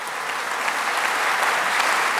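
A steady wash of applause from many people clapping at once in a parliament, dense and even in loudness throughout, with no voices rising above it.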